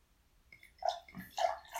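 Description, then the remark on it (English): Water being poured, a splashy gurgling stream with small bursts of sloshing, fairly quiet, lasting a couple of seconds with no one speaking. “Yeah, as I'm pouring water.”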